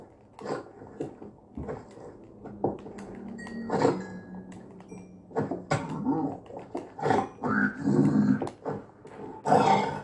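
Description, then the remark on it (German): A Minecraft Piglin Brute (Piglin Barbar) growls and grunts in a run of rough, guttural snorts and low snarls, some drawn out, others short and choppy, loud throughout with no talking over it. “Ist es, ist es ein mutiertes Riesenschwein oder was?”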